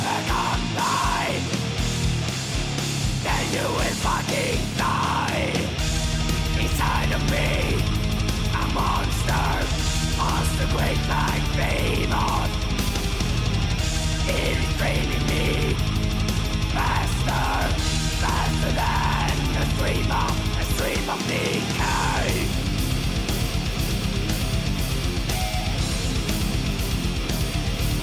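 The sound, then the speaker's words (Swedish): A loud, dense death metal riff of heavily distorted guitars pounds along with driving drums, harsh shouted vocals surging over it, the wall of sound staying full and relentless throughout. “Det här är ett riktigt Nuclear Blast DVD-riff.”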